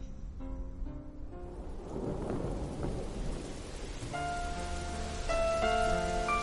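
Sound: rain falling on leaves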